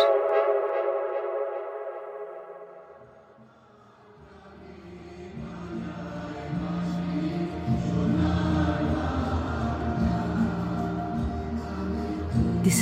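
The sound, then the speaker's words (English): A huge stadium crowd of Indians and Bangladeshis at the India–Bangladesh match of the 2019 Cricket World Cup sings Amar Shonar Bangla together, a dense, sustained wall of voices with steady tones, preceded by a few seconds of held, horn-like notes that fade before the singing swells. “What you're hearing is an entire stadium full of people, Indians, Bangladeshis, singing Amar Shonar Bangla.”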